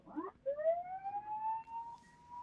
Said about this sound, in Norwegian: Skal du gi en liten uh, sirene til slutt, da, når vi ønsker dere god tur?